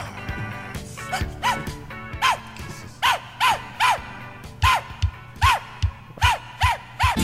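An upbeat dance song plays, driven by loud dog barks repeating in a steady rhythm, roughly two per second, over a low musical backing.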